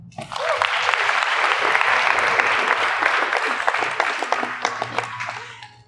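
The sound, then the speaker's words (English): An audience applauds a woman speaker, breaking into sustained applause, a dense wash of many hands clapping steadily for several seconds before thinning out at the end, with faint voices underneath. “Clap for her.”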